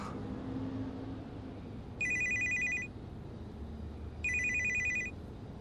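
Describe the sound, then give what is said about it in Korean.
A phone rings twice in bright electronic bursts, each lasting about a second, over a steady low rumble inside a taxi moving slowly across Incheon Bridge in the rain. No one speaks. “어, 도착했나? 누나의 전화였다.”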